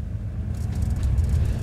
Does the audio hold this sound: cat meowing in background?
no